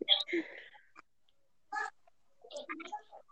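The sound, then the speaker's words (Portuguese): A duck quacks harshly in a few loud, agitated bursts, with short pauses between calls and no talking. “Pessoal, só eu, só eu acho que só eu e minha mãe sabe o tanto de raiva que o pato tava passando um pouco.”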